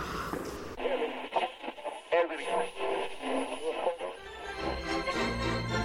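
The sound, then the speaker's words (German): A radio is switched on and cuts in abruptly after a brief moment with a lively broadcast voice that soon gives way to music, steady and fairly loud with a compressed, tinny quality. “Ich höre jetzt lieber Radio.”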